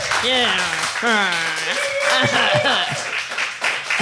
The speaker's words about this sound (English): There is a thunderous applause from the audience.